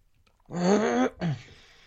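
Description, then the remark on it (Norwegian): A fairly loud throat clearing in two voiced pushes, a longer rasping one followed by a short second one, with quiet around it. “Kremtus.”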